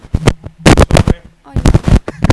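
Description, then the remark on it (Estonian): A microphone gets bumped and knocked against a person, producing a quick series of loud, muffled thumps and rustling bangs in irregular bursts, separated by brief quieter gaps. “mis sa peksad seda, teda selle mikriga või?”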